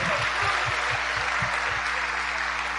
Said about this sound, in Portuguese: Coisa linda, né? Aplauda o Senhor.